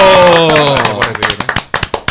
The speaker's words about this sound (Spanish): Recibimos a Pablo, Pablo Chea Chea. ¡Un aplauso!